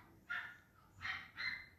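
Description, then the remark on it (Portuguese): A dog barks three times in quick succession, the sharp yaps sounding somewhat muffled, with a faint background hum and no voices. “Tá, vocês tá, estão conseguindo escutar a porra do latido, mano?”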